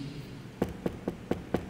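Five evenly spaced knocks on a door, sharp and moderately loud, arriving in a steady quick rhythm after a brief quiet moment, with no voices.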